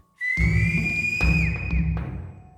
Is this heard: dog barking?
no